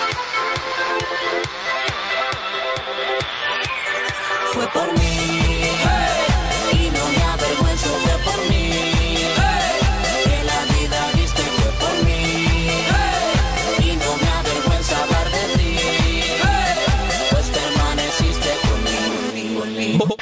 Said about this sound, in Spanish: Vámonos a una breve musiquita y de una ya volvemos a seguir disfrutando del buen contenido de La Voz Juvenil.